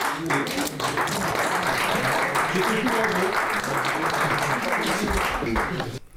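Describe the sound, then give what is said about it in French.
Sustained audience applause marking the end of the debates of an états généraux assembly, a dense steady wash of many hands clapping at an even loudness for several seconds, with some voices mixed in underneath. “Vous venez de l'entendre avec les applaudissements, c'est la fin des débats de ces états généraux.”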